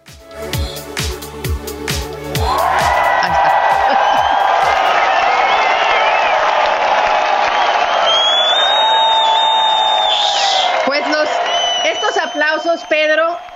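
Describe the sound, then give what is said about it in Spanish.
A few rhythmic thumps, then a loud, dense burst of crowd applause and cheering with whoops, played from the booth, rises and holds steadily for about ten seconds before breaking off. “Pues antes de contarles lo que pasó el fin de semana en Estados Unidos y en el mundo, quiero empezar con un aplauso que nos van a correr desde cabina,”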